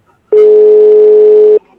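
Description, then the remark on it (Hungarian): A single telephone ringback tone of an outgoing call, one steady, loud electronic burst lasting just over a second, heard on its own with silence on either side. “mert hogyha minden igaz, akkor már csörög is.”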